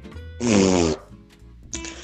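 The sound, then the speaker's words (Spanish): Someone vocally imitates the squelchy fart noise of a toy plastic cup of putty that you stick a finger into, a loud, buzzy raspberry about half a second long, then a shorter second burst after a brief pause. “El vasito como de plastilina que metías tu dedita. Sonaba.”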